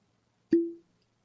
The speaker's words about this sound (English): And that is the sound of me opening up a High West Double Rye whiskey.